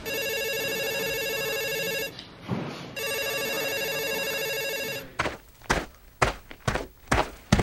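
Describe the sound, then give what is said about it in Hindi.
A telephone rings loudly in two long, buzzing bursts separated by a short pause, an informer's call in May 2013, followed by a series of heavy thumps like hurried footsteps. “मई 2013 में एक इन्फॉर्मर का फोन आया”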